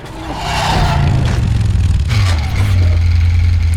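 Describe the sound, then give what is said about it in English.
A loud motorcycle engine in the video game Bayonetta revs steadily as Bayonetta and Jeanne fight on the motorcycle, its low growl dipping and rising in pitch, layered with scraping, clattering action noise throughout, with no talking. “now they're both on the motorcycle fighting.”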